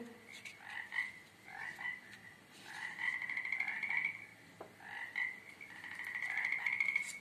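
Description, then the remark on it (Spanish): Frogs croaking in a steady series of raspy, trilling bursts, repeating every second or so at moderate volume, with no voices present. “¡Cruak! respondió el cerdito.”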